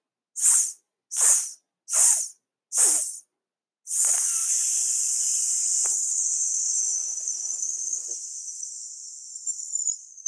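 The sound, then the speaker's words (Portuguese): After a big inhale, four short, sharp hissing 's' bursts in an even rhythm, then one long sustained hiss that stretches on for several seconds, fairly loud, with no talking; a breathing exercise timed with a stopwatch. “Inspira grande, vai soltar quatro vezes em S e na quinta vez você vai deixar esse som extenso até o final.”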